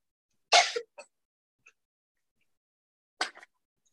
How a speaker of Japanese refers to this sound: 咳してるね。